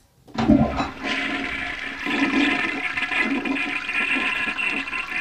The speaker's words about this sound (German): Thema zur Klospülung der Folge. Ja. Soll ich drücken?